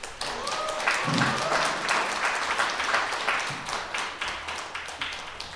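An audience at a book talk applauds steadily for several seconds to welcome the author of the new book 'Father's Country, Son's Country', a dense, crackling wash of many hands clapping at once, fairly loud and sustained throughout with no speech over it.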